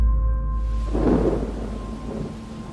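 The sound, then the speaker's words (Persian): A deep rumble of thunder rolls in and swells, with the hiss of steady rain beginning beneath it, in a park. Loud, with no voices. “همون موقع بارون گرفت نمیدونم چرا ولی از بچگی از بارون خوشم میومد همیشه یه حس آرامش بهم به میده مخصوصا اولش که زمین خیس میشه بوی نم و خاک بلند میشه”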